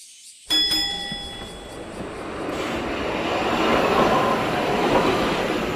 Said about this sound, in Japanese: 彼は呉服橋行きの電車に飛び乗った